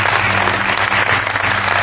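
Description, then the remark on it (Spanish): A crowd applauds steadily, a dense wash of many hands clapping at once, loud, with no pauses for the whole short stretch. “No lo aplaudamos.”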